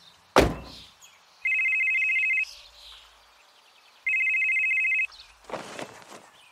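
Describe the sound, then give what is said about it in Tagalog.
A telephone rings twice at a house in Bicol around seven in the morning, with strong wind and a dark sky outside, each ring a steady, bright electronic trill lasting about a second, separated by a pause. A sharp thump comes before the first ring and a rustling noise follows. “Oh, Kuya Arnold, napatawag ka.”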